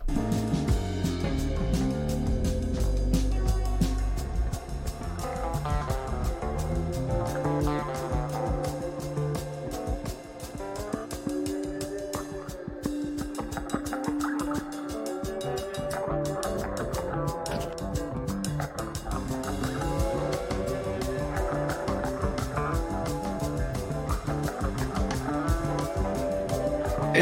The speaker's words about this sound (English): So, if you're listening for the jingle, here the fuck it is, dude.